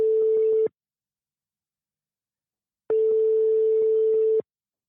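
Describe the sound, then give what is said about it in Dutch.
A steady telephone ringing tone of an outgoing call sounds in two bursts, a short one and then a longer one after a pause of silence, a single mid-pitched hum with no one picking up. “zullen we zelf ook eens gaan bellen met, uh, met oom Piet?”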